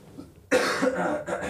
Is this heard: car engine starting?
no